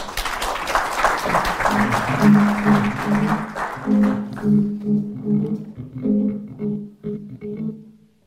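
An audience applauds loudly for a few seconds, the clapping gradually thinning out as sustained musical notes begin to play underneath and then take over.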